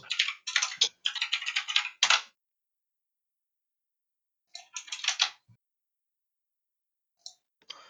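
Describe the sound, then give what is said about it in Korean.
Rapid computer keyboard typing in clattery bursts as someone searches for a news article: a long flurry of keystrokes, a pause, another short burst, then a few last taps. Nobody speaks. “잠깐만요. 지금 한번 기사 찾아보고 있는데요.”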